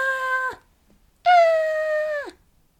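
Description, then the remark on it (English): Two loud, put-on screams from a single voice, a short one then a longer one after a brief pause, each holding a steady shrill pitch before sliding down at the end. “need to stop fake screaming.”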